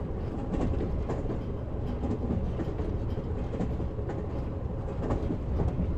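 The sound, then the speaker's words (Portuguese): A locomotive-drawn train rolls through the mountains of the Serra Gaúcha with a steady, continuous low rumble, faint rhythmic clacks of wheels on track repeating beneath it. The sound stays even throughout, with no voices. “contínuo da locomotiva vai gerando uma sensação de relaxamento.”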